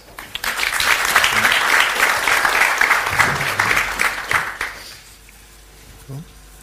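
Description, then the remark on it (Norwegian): An audience in Bergen applauds the introduced energy-company panel speakers with a dense, steady clatter of many hands clapping for about four seconds, then the applause fades out and a brief murmur of voices follows. “Gi dem en applaus.”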